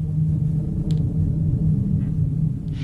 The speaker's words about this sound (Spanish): Y ahora te preguntarás, ¿entonces ese dron que has metido? es casi como un personaje más. Suena oscuro, trágico, inquietante. Busco más una sensación que un acompañamiento.